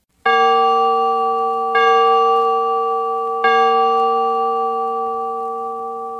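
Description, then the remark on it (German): A large church bell tolls three times at a slow, steady pace, each deep, rich strike ringing out and overlapping the long, slowly fading hum of the one before. “War der dahingeschiedene ein Mann, so wurde nach dem üblichen Mittag- oder Abendläuten mit der großen Glocke verkündet.”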